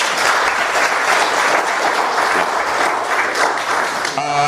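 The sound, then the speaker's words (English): A crowd claps steadily and loudly for several seconds, a dense, even wash of applause that holds strong throughout before thinning right at the end. “Big round of applause to Luke.”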